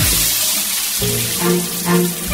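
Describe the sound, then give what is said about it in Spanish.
A shower runs steadily, a continuous hiss of spraying water with a few faint tonal swells in the middle; no one speaks. “Ay, sabes que tienes poco tiempo en la ducha, pero también sabes que es tu momento, lo único que te queda en la vida, tu tiempo de baño.”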